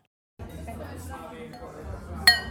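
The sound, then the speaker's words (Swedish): Glasses clink together once in a toast, a bright ringing tap near the end that rises above a steady murmur of voices and chatter from a crowd at the venue Ängelen. “Fan vad, skål”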